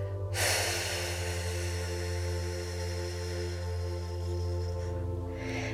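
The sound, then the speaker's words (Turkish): A slow, deep breath drawn in and let out in one long, airy exhale over a steady low drone, with no talking, during a guided relaxation breathing exercise. “Ve son kez kocaman büyük bir nefeste ve atıyoruz şimdi o kocaman kıskançlık dalgasını.”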